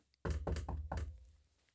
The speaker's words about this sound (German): siehe, ich stehe vor der Tür und klopfe an.